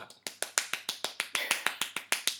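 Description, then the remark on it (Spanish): A quick, steady run of about fourteen sharp taps, someone imitating a neighbour's dog thumping its tail against the floor when it sits, in an even, rapid rhythm. “No, no, pero un día en el ascensor con la vecina y con su perro me di cuenta que era el perro que con la cola cuando se sienta en el suelo, eh, pega”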